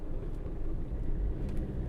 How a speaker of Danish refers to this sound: Og ja, hvad skal jeg sige? Jeg er aldrig nogensinde blevet overhalet af så mange store lastbiler.